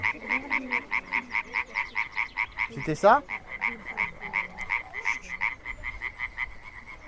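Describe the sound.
Iberian tree frog, a small tree-dwelling frog, calling in a fast, steady, jerky train of sharp, rattling croaks that runs the whole time, loud, with a brief spoken remark midway.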